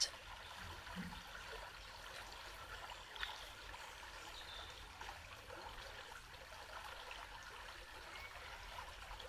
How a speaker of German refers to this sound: Und es existiert immer mehr und mehr nur dieser Moment und das Plätschern des Wassers. Und dieses Plätschern, Fließen breitet sich nun immer mehr aus, über deinen Körper hinaus.